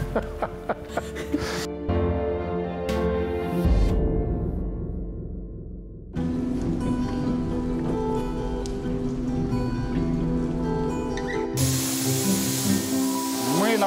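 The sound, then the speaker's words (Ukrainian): At a Metinvest group plant's blank-cutting section, a plasma cutting machine cuts a blank for armor plates from hot-rolled steel sheet, giving off a loud, continuous hissing roar with a steady humming undertone, shifting abruptly in character a few times as the sound changes. “находимся на участке заготовки, где на машине плазменной резки из горячекатаного листа вырезается заготовка для бронепластин.”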